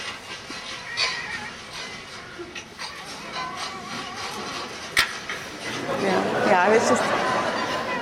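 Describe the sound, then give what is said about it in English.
Caged foxes, tame and aggressive, yelp and chatter during a videotaped behavior test, with short cries early on building to a louder run of rapid, warbling calls near the end. “you can see how different their location in the cages, postures they have, uh, sounds they make.”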